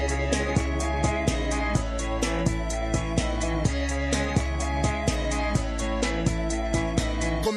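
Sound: song intro playing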